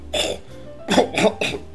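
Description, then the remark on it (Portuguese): A voice imitates a man coughing and spitting during a meeting: one harsh cough, a short pause, then three quick bursts in a row, fairly loud, with no speech. “cuspindo na gente, tossindo.”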